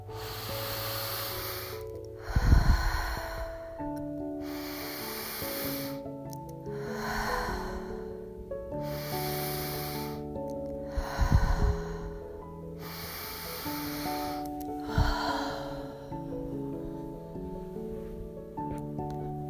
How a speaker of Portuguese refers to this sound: E agora vamos começar a relaxar a nossa mente com um ciclo de quatro respirações profundas pelo nariz ou pelo nariz e pela boca. Vamos começar?